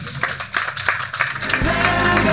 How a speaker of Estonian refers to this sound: teeme neile ühe aplausi.